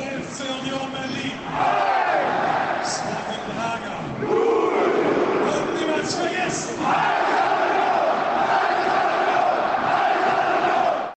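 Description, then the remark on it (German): A huge crowd in the Olympiastadion erupts in a loud, sustained roar after Union Berlin's first Champions League goal in the 30th minute, with surging waves of cheering and chanting voices swelling repeatedly and never dropping off. “Und dann 30. Minute, erstes Champions League-Tor von Union Berlin. Wir hören mal rein, das klang so.”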